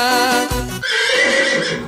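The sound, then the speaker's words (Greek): A horse neighs loudly, a shrill whinny with rising and falling harmonics lasting about two seconds, broken by a brief low snort midway. “Άιντε κι αλόγα”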